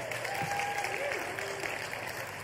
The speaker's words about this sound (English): Let's give those boys a round of applause.